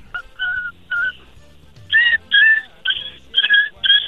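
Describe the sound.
A voice imitates a yelping puppy with a series of about eight short, high-pitched whimpering yelps in quick succession, growing louder and more strained toward the end.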